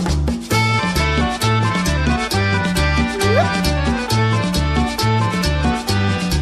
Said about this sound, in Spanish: Y ahora viene el acordeón.